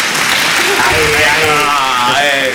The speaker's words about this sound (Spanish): Como estoy aquí solo, pues claro, me pongo los aplausos ahí.